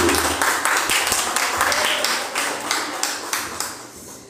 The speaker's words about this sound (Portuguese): palmas para Jesus mais uma vez.